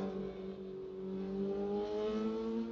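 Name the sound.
motorbike passing by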